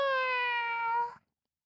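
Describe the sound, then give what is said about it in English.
A single long, drawn-out meow, clear, holding a steady tone that dips slightly before cutting off abruptly, likely a human voice imitating a cat. “But all the gato did was dormir. Meow.”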